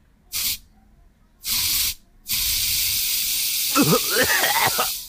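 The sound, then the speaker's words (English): Two short bursts of an aerosol cleaning spray hissing, then one long continuous spray, fairly loud, with a voice briefly speaking over the end of the long hiss. “Oh, you're such a clean freak.”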